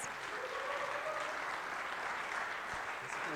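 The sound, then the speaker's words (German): Sustained audience applause welcoming a pastor as he comes up to preach in German, a dense wash of many hands clapping at steady loudness throughout, with no voices standing out above it. “And why don't we give him a big hand as he comes to minister to us? Ja, yeah, und gebt ihm einen großen Applaus.”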